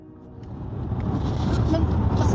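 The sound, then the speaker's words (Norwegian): Steady low rumble of a moving car heard from inside the cabin, a dense engine and road drone that swells gradually louder over a couple of seconds, on the way to the defenders' autumn seminar at Sundvolden hotel. “I bilen med …, som er på vei til Forsvarernes høstseminar på Sundvolden hotell.”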